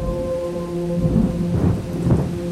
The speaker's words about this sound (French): Ça commença une nuit, beaucoup plus haut que nous, dans la vallée de l'As, vers Mézel, par un orage qui enflammait tout le ciel. De chez nous, couché, on l'entendait là-haut, qui écrasait la terre avec ses gros pieds.